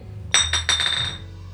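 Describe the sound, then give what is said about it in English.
Three quick glass clinks in a row, each with a bright, ringing tone that lingers briefly before fading; clear, with no voices present. “Don't break the glass”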